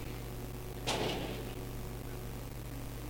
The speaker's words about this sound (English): I, the Bible says, I sit, I stand behind knocking. I'm sure that's not Jesus. Because he's here.